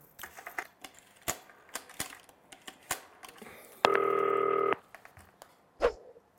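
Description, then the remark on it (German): A run of sharp clicks like buttons being pressed on a green telephone to call someone, then one loud, steady electronic dialing tone for about a second, followed by a final click. No one talks. “Ich rufe den jetzt mal an. Grünes Telefon.”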